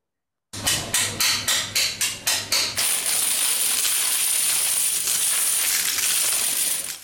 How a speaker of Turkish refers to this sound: Son çare kumbarayı kırdılar. İçinden 10 bin lira çıktı.